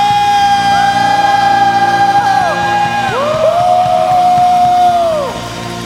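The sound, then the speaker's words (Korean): A church audience at a worship service claps and shouts together, giving applause of thanks and glory to the Lord and a shout of victory; rising whoops and long yells ride over a steady wash of applause for several seconds before the roar drops away near the end. “우리 믿으시는 만큼 주님께 감사와 영광의 박수 올려드립시다 승리의 함성”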